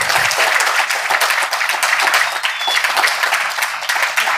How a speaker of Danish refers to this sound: Come, let's give them a round of applause. I know they put in a lot of work. Endelig bare give en klapsalve.